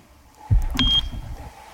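A single short, high-pitched electronic quiz buzzer beep from the green contestant's buzzer sounds clearly, preceded by a dull thump like a button being pressed, with low rumbling handling noise around it and no talking.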